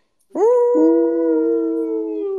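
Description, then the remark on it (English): A person imitates a long wolf howl: one drawn-out, steady tone that swells quickly and then holds at an even pitch, loud, with no talking. “two nights later is when I first heard the wolf howl, followed by the pack, uh-huh.”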